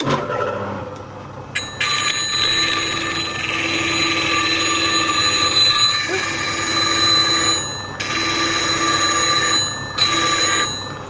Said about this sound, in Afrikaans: gaan nou die masjienkie aansit hierso wat die rasper werk mee gebeur. Julle sal hoor dit klink soos 'n telefoontjie